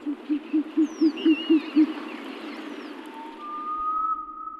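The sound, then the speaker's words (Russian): A rapid series of about eight low, even owl hoots in steady rhythm, followed by a sustained tonal note with faint higher bird calls in the background. “Сова. Мудрость, ученость, рассудительность.”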